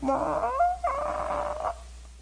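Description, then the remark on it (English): A voice imitates the screeching of a sanctuary door that needs WD-40 as it opens: a drawn-out, wavering, nasal whine that slides in pitch, briefly breaks, then carries on for almost two seconds before stopping. “Because I went in to get my keys, and when I went through those doors, not these doors, it was a different sanctuary, of course, but it was doors like that going in, and when I opened them, the door went”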